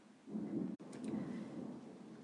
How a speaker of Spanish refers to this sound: Hoy está lloviendo, así que no se asusten si escuchan truenos, ¿vale?